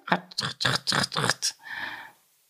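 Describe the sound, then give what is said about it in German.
A voice imitates a ratchet clicking: five quick, raspy bursts in a steady rhythm, fairly loud, trailing off into a short breathy hiss. “meine Ratsche,”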